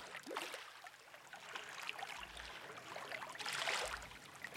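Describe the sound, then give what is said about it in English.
Sloshing, splashing water as someone wades steadily through knee-deep, very dirty water full of parts of dead birds in the tunnels beneath the hippodrome, with watery swishes surging and fading in an echoing, enclosed space; no talking. “This water is maybe the dirtiest water I've ever been in.”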